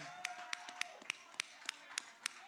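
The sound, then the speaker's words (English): A small audience applauds for Tyus Bowser and Chuck Clark, with sharp, distinct claps landing in a quick, fairly steady rhythm over a low crowd murmur and a brief high whistle-like tone early on. “All right, make some noise for Tyus Bowser and Chuck Clark, ladies and gentlemen.”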